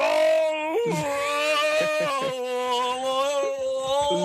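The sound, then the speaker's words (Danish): A simulated retching, vomiting cry from a vomit simulator: a loud, drawn-out strained groan with wavering pitch, broken by a few abrupt gagging catches, heard alone without talk. “Øh, fandt jo hurtigt ud af, at øh, der var en, ten, en tendens til, at folk nærmest sådan hoster et par gange, øh, før at de ligesom kaster op.”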